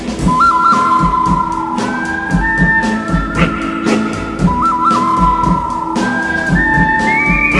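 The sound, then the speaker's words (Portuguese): A chiptune western duel theme plays over a steady electronic beat, with a whistled melody that holds long notes, bends upward and repeats its phrase in loops. “Tem, é, tem esse, esse áudio em Chiptune.”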